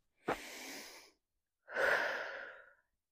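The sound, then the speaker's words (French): Two heavy, breathless breaths of a winded woman catching her breath into the microphone while recording outdoors in nature, a sharp intake followed by a longer, louder exhale, with no talking. “Ici … au micro, un peu essoufflée, pour un nouvel épisode de podcast. allez, je reprends un peu ma respiration.”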